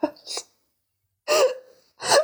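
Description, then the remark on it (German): A voice imitates a suppressed cough: a few short, choked, breathy bursts with pauses of silence between them, held back rather than fully released. “kennst du das, wenn die Leute einfach unter versuchen, so Husten zu unterdrücken oder so.”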